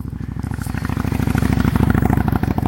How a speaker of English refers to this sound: Sorry, guys, motorcycles. is, is this funny? Like, I'm out walking in a neighborhood where there's usually like no activity, and uh, we got like the Harley Club out riding tonight.